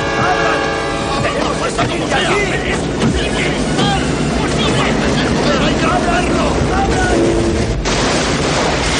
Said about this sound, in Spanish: El tren impacta contra ellos, partiendo la limusina en dos y haciéndola explotar.